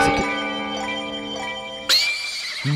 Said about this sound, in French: Attends, attends, attends, mais si le carillon de cristal vient de sonner, là c'est.